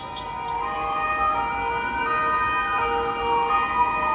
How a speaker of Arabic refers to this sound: صوت دوشة وسط البلد العادية بيغطي عليه صوت تاني لا صوت يعلو فوق صوت السرينة بيكون هو الموسيقى التصويرية المصاحبة للحياة في وسط البلد هو المؤشر على تواجد قوات أمنية بشكل مكثف